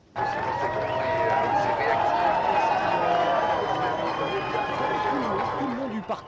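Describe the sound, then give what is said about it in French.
A very large crowd at the start of a Tour de France stage fills the air with a steady, dense hubbub of many overlapping voices, holding at an even loudness for several seconds, with individual shouts occasionally rising above the din. “Vous allez entendre euh, bah, l'ambiance, cette foule très importante qui était là.”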